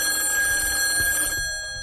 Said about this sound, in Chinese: 一个寒冬漆黑的夜里，凌晨时分，值班警长喵警官正趴在办公桌上休息。突然，一阵急促的电话铃声响起，